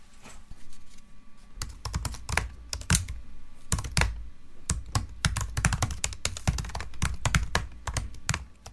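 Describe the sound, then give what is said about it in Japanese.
Steady, fast typing on a keyboard as Tsunku types text into a messaging app during an interview, with many crisp key clicks in quick bursts and brief pauses between them, clear with no voices. “今回のインタビューではつんくさんにはメッセージアプリで文字を打ち込んでいただき南部さんに代読してもらいます”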